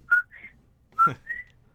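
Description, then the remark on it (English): A person whistles a two-note "co-qui" call twice, imitating a coqui frog: a short lower tone rising to a higher note, repeated after a pause, clear. “And he's special because at night, like when the sun starts to go down, he kind of does this whistle, and it kind of sounds like coqui, coqui”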